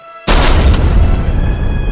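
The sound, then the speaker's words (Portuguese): A thrown red grenade explodes behind a closed door: after a brief quiet moment, a sudden loud boom bursts out and rolls into a heavy, sustained rumble until the end, with no voices. “Tira o pino, dá um rolamento jogando a granada.”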